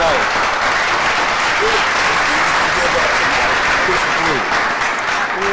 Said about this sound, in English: You in school, so we gon' we gon' applaud you for that, cause yeah, we all